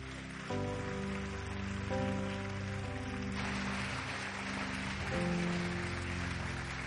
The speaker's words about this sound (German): Geben wir Ihnen nochmal einen Applaus.